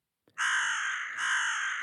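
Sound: crow cawing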